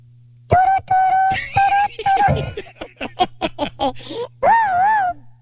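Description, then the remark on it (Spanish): A voice imitates a sheep's bleat as a phone ringtone: a few steady sung tones, a quick stutter of short bursts, then a loud, wavering baa with shaky vibrato. “¿Cómo suena el celular del borrego?”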